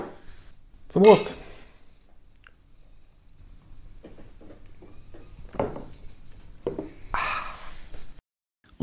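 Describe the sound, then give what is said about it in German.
Beer glasses, one of a Bavarian-style Helles and one of a Pils from Bitburg, clink together once in a toast near the start, a sharp, bright ring, followed by quieter shuffling and a few short bursts of sound that may be murmuring voices. “Prost.”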